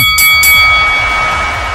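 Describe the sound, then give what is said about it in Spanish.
A bell rings out loudly to start the lucha libre live show Hablando de Lucha, its bright metallic tone holding steady and humming for nearly two seconds after a couple of sharp initial strikes, with no voices. “Prepárense todos porque cuando suene la campana”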